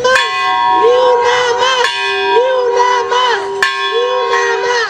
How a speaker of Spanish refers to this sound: Entonces nos la entregaron y nos venimos replicando esta campana, replicando esta campana, tañéndola en señal de duelo.